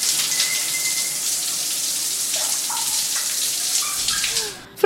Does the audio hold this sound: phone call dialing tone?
no